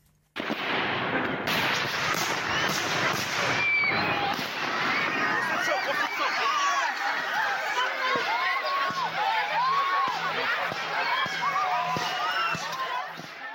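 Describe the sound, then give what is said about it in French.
Fireworks boom and crackle in rapid, irregular bursts, some with whistling streaks, over a loud crowd whose shouts and chatter fill the scene throughout, at an evening fireworks display in the Angers area, France, where a firing accident occurred; the automated show kept going. “Euh, il y a eu l'incident, il y a eu des cris, les, pompiers sont, intervenus euh, rapidement, mais, le feu d'artifice s'est poursuivi.”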